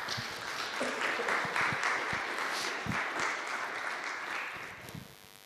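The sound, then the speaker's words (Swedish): Sustained applause from a church audience at Centrum Göteborg, marking four years since the church was started, a dense patter of many hands clapping steadily for several seconds before tapering off toward the end. “Ska vi en applåd tycker jag.”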